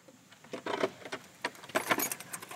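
A large metal key clanks and scrapes in an old lock, with a series of bright metallic clicks and rattles over a couple of seconds, fairly quiet overall.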